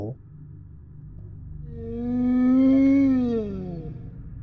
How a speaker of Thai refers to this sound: เจ้านั่นก็จะโผล่มาต่อหน้าต่อตาผม พร้อมกับเสียงคล้ายเสียงหอน